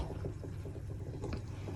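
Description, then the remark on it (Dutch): Eggs rattle in a pot of boiling water, giving off quick, light knocks about four times a second over a steady, low bubbling rumble. No one speaks. “Oh, en de eieren gaan koken. Jee. Ik hoor ze al een beetje. Tok, tok, tok, tok, tok.”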